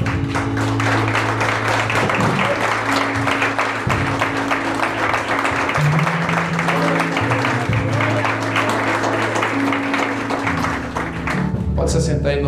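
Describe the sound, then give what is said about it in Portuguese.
A church audience applauds Jesus steadily for the whole stretch, a dense, loud wash of clapping over sustained low keyboard chords, with scattered voices mixed into the crowd noise before it thins at the end. “Pode aplaudir a Jesus.”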